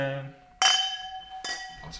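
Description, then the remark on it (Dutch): Glasses of rosé wine clink together in a toast, two or three bright strikes, each leaving a clear ringing tone that slowly fades. A voice murmurs briefly just before the first clink. “Dan krijgen we allemaal een wijntje. Nou, en nou, proost.”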